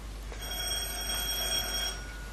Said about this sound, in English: That'll be the doorbell.